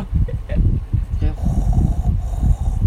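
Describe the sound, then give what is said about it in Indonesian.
A voice imitates snoring with rough, rattling breaths repeated in a steady rhythm, fairly loud, with a faint hiss running underneath. “iya, ngorok tuh, udah ngorok.”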